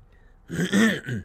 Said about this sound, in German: Was ist das für ein Räusperer?